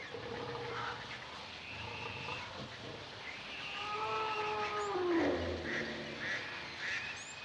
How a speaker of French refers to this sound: Les bruits de la jungle, les cris, les chuchotements, les conversations, le brouhaha de la jungle.